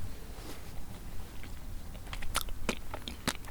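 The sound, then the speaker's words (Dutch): Chewing of sandy soil with gritty, crackling crunches as many small stones grind between the teeth; several sharp, louder crunches stand out over a low rumble, with no talking. “Hoor je dat? Ja, dat hoor ik heel goed. Dit is, uh, ik hoor heel veel steentjes, dit is zandgrond.”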